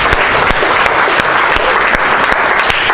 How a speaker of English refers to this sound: Praise God. Round of applause.